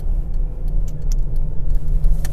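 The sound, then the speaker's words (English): A steady low engine rumble from inside a car idling or creeping along in traffic for twenty-some minutes, with faint clicks and ticks over the constant drone. “All right, had some s- slight interruptions, but now we are in traffic for 20 something minutes.”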